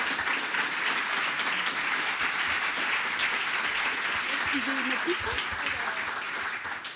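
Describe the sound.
Sustained audience applause welcoming a speaker at a talk, a dense steady wash of many hands clapping at even loudness for several seconds, with faint voices briefly audible beneath it.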